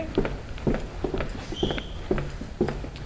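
Footsteps walk at a steady, even pace, about six or seven firm steps on a hard floor, with a brief faint high-pitched tone sounding midway, as people walk to the doctors' room.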